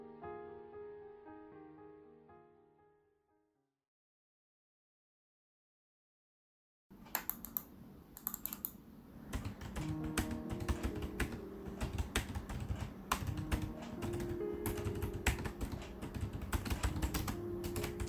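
A short musical phrase fades into silence. Then rapid, steady typing on a computer keyboard begins, entering search terms into the Google search engine: dense clicking keystrokes that continue without pause to the end, with no voices.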